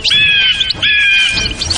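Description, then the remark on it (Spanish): Loud, harsh bird calls in two long, sustained bursts, squawking and chirping, with a few shorter tweets trailing off at the end. “salió a dar un paseo con la esperanza de que los pájaros salieran volando. Pero solo consiguió que hicieran todavía más ruido.”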